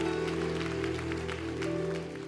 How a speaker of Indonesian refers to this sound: Hari ini jangan diam, lawan intimidasi yang mau tepuk tangan yang meriah untuk kemuliaan nama Tuhan.